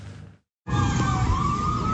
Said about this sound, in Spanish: Sobre las 8 de la noche, las sirenas alertaron a los habitantes del barrio Santa Helenita en el occidente de Bogotá. Y es que 22 personas privadas de la libertad se volaron de la estación de policía de Engativá.